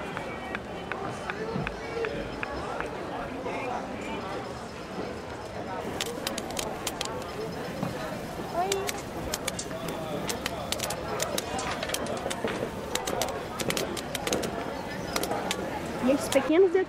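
Dense outdoor crowd ambience on a busy pedestrian shopping street lined with shops, galleries, awnings and tall buildings, with steady overlapping chatter of people coming and going, shuffling footsteps and scattered sharp clicks and knocks.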